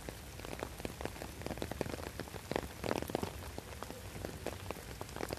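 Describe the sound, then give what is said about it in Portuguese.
Heavy rain pours steadily onto hard surfaces, a dense hiss broken by countless sharp drops and splashes, with no voices. “O importante é apresentar aqui a, a chuva que está inundando o pé do trabalhador.”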